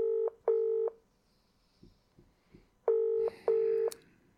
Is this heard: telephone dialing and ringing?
yes